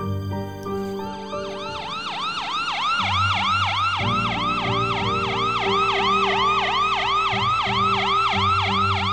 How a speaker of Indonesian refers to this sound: Ah, akhirnya mulai berdatangan juga truk pemadam kebakaran lainnya.